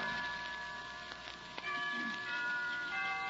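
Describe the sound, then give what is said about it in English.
Chimes ring steadily, their sustained metallic tones layering into a shimmering wash with a few soft ticking strikes, moderately loud with no voices. “Why don't we both just sit here and listen to the chimes for a while?”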